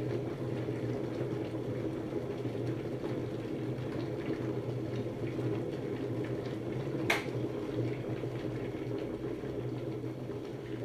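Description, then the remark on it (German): An electric kettle rumbles steadily as water comes to a boil, a continuous churning roar with a brief sharp click partway through, no voices present. “Das Wasser ist fertig”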